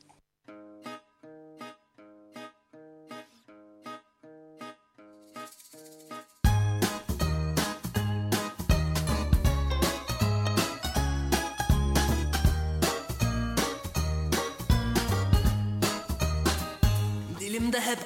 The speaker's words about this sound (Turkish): fazla yer alabilecek bir müzik diyebiliriz. O halde dinleyelim mi?